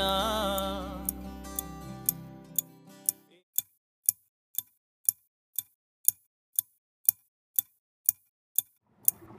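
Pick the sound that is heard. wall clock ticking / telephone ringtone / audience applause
wall clock ticking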